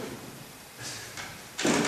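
A door swings shut with a muffled thud near the end, preceded by a couple of softer rustling, sliding noises. It's fairly quiet overall, with no one speaking.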